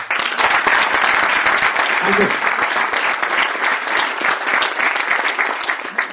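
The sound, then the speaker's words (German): Sustained applause from a crowd for three presenters before a talk, dense steady clapping that fills the whole stretch at a loud, even level, with a single brief spoken word cutting through midway. “Einen kräftigen Applaus für die drei.”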